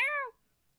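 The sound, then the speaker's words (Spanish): A single short, clear cat meow, its pitch sliding downward before it cuts off into near silence, from a cat lying relaxed on the shoulder of a tall robot. “Y regresa el gato de la escena pasada y está recostado sobre el hombro del robot alto, aunque este tenía ahí un cañón ahí desplegable y el, gato ahí todo relajado ahí.”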